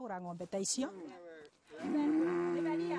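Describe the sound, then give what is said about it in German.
A cow lets out a long, loud, steady moo lasting over a second, after a short stretch of voice and shuffling noise at the start; one of a family's cows kept for income. “Und die Kühe tragen zum Familieneinkommen bei, sichern das Essen für Godwin und seine Mutter.”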